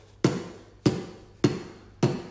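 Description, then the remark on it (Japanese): Four evenly spaced beatboxed bass drum kicks: a voice demonstrating the most basic beatbox (voice percussion) sound, a 'bo' pushed out from the lips. The thumps are punchy and low, each hit fading quickly, fairly loud, with no talking. “それではですねビートボックス、まあ、ボイスパーカッションとも言いますけれどもまあ、一番基礎的なね、はい、部分から言いますとバスドラムっていう音がありましてバスドラム、えー、実際にちょっとじゃあ音を出してみたいと思いますはいお願いします”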